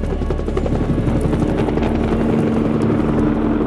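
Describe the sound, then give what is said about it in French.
A helicopter drones loudly and steadily overhead, its rotor thumping in a rapid continuous beat with a sustained engine whine, no voices present, as it makes a pass, comes back and hovers above an exercise yard watched from guard towers. “L'hélico fait un passage, mais à la surprise générale, il revient.”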